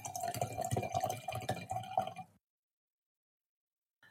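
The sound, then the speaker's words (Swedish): Wine pours steadily into a restaurant wine glass for about two seconds, a gurgling fill with a faint ringing tone, then stops abruptly into silence. “Jag hällde upp ett restaurangglas vin.”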